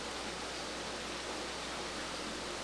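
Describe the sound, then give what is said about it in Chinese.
Heavy rain with some wind outside, recorded through an open window, makes a steady, unbroken hiss that fills the whole stretch, fairly soft in level, with no voices or distinct drops standing out. “我真的很喜欢雨声，我们一起我们一起来听，大概大概三秒钟，因为现在雨刚好有一点大，然后又带一点风。”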